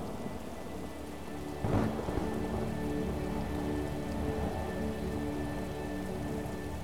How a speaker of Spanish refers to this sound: A la mayoría de las personas les gusta observar una tormenta de verano y la viven de forma plena, disfrutándola.